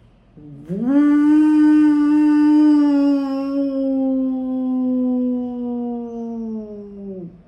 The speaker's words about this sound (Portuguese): Panchajanyam, a concha de Krishna o arco de Arjuna, a concha de Krishna